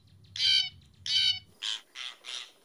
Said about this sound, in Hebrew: אבל העורבנים לא חסר. העורבנים הם חקיינים מעולים, יודעים להטריף את השכנים כשהם מחקים חתולים, ואז הכלבים שלהם נכנסים לאטרף ונובחים בלי סוף, אה, והם יודעים לחקות אה, גם ציפורים אחרות. ציפור מרתקת.